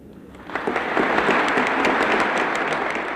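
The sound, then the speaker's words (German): A large audience in the Sverdlov Hall of the Moscow Kremlin applauds stormily as Nikolai Tikhonov presents Bertolt Brecht with the diploma and gold medal of the International Stalin Peace Prize; dense, sustained clapping swells in after a brief moment and stays loud and steady, a thick wash of many hands with no voices. “Unter stürmischem Beifall überreicht Nikolai Tichonow Bertolt Brecht das Diplom und die goldene Medaille des Internationalen Stalin-Friedenspreises.”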